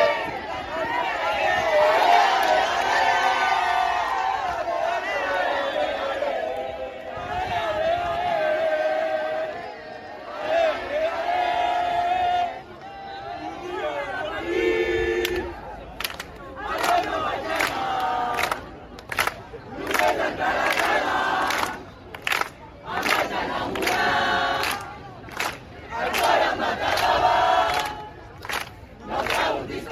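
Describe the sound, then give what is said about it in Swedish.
A large crowd of football fans chants and yells together at the arena while waiting for the team bus, an hour before the players arrive for the Barcelona versus Wolfsburg semifinal, in loud, continuous waves, with rhythmic shouted bursts that break into choppy, clapping-like pulses partway through. “Barcelona mot Wolfsburg och ja, vi kan väl bara lyssna hur det lät redan en timme innan spelarna ens hade kommit till arenan när fansen stod och väntade på spelarbussen.”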